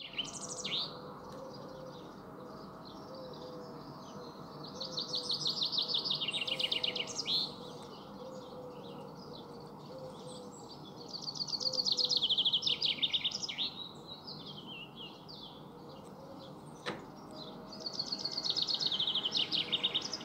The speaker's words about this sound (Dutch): en dan luisteren we nu naar de Vink.